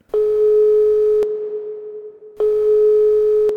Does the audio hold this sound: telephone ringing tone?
yes